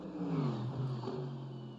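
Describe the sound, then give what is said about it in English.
The powerful engine of Gar Robinson's race car rumbles steadily on an early morning run at WeatherTech Raceway Laguna Seca, its low harmonic drone shifting in pitch as it revs, with no talking over it. “Gar Robinson continue to rumble around, or at least the car's rumbling around.”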